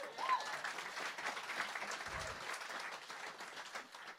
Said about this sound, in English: Yeah, you should applaud that. God, give that applaud.